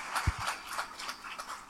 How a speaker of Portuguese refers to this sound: Nós sempre gostamos de abraçar, de apertar a mão, mas, como vocês sabem, não podemos neste momento. Mas uma coisa nós podemos fazer, que é aplaudir.